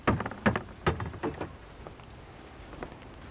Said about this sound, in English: But at one in the morning, there's a knock.